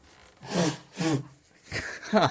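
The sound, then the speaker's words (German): A person with hay fever blows their nose in a few forceful, breathy honks, about four noisy bursts over two seconds with a rough, gurgling texture, and no talking. “Achtung, Nase putzen”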